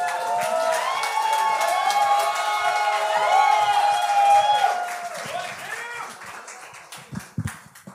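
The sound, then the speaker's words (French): A comedy show crowd applauds and cheers as a comedian is introduced, with loud whoops and shouts, a dense wash of clapping that holds steady for several seconds before thinning out near the end. “On applaudit”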